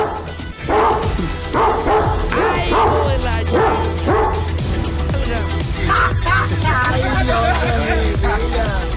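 A dog barks loudly and repeatedly in a fast, steady series, with a few yips and whines mixed in and voices faintly underneath.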